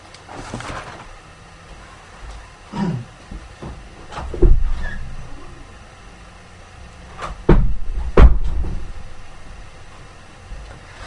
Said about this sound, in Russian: Кота выпущу через дверь.